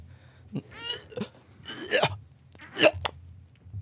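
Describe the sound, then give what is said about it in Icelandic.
A person deliberately imitates gagging to see whether listeners gag along, making a series of short, strained gagging noises, about four throaty retching bursts with a rough, voiced rasp, the last one loudest, separated by brief pauses. “Þú veist, af því ofti nóg fyrir fólk bara að heyra eitthvað svona hljóð til að tryggra eitthvað Þannig að ef þið eru að hlusta núna og þið tryggruðist af kúuna hljóðinu sem, sem ég var að gera og með endilega láta mig vita”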